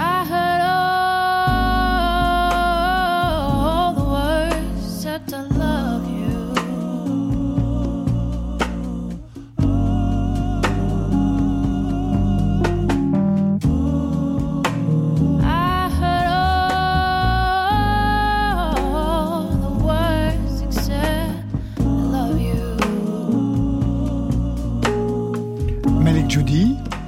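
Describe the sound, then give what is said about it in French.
A recorded song plays continuously at full volume, a melodic lead voice gliding over a dense backing of steady bass and instruments, with a few brief dips in the mix. “à votre tour, donc ce titre à faire découvrir.”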